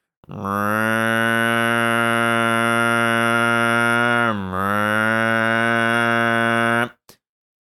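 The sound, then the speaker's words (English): A voice imitates lawnmowers droning from far away with one long, steady, buzzy hum lasting about six seconds, fairly loud, with a brief dip in pitch partway through and nothing else around it. “Another really powerful meditation I had was just a moment where I was out and about and I heard these lawnmowers from really far away. And the lawnmowers were making this noise, you know.”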